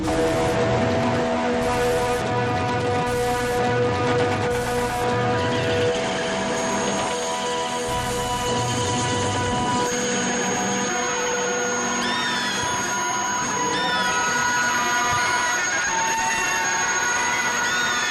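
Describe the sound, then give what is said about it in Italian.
A dense, unbroken wall of noise from amplifiers in resonance, with distortion, sustained ringing tones, shrill whistling squeals and a grinding low roar, loud and continuous throughout with no voices, from a 1975 double album. “90 minuti di rumore, 90 minuti di distorsioni, 90 minuti di amplificatori in risonanza, 90 minuti di terrore.”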